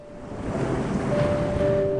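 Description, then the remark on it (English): A steady, roaring wash of ocean surf fills the air, broad and continuous with a faint swell in the middle, like heavy waves breaking with wind in the background. “Wide-eyed, excited by the large waves crashing against one another.”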